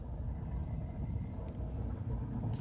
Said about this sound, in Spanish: Varios helicópteros vuelan en dirección a la isla cariño. Nos vamos a uno de esos ahora mismo.